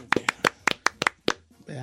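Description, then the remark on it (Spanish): A short burst of hand clapping, about eight sharp claps in a quick, slightly uneven rhythm, ending as a voice starts to speak. “Eh, te, te, ya no malo de mis manos, no puedo, no puedo yo aplaudir mucho.”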